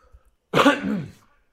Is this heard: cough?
yes